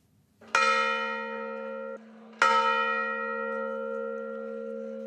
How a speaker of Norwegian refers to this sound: Klokkene ringer for en av demonstrantene som ble drept i Kiev i forrige uke. I byen Viv har mange møtt fram for å følge en 40 år gammel tobarnsfar til graven.